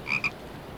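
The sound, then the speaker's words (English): A toad gives two short, high croaks in quick succession, the second briefer than the first, then quiet background follows. No one is speaking. “But I was concerned for the safety of this toad, and there was no on street parking.”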